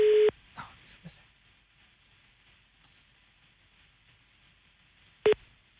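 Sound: telephone call ringing tone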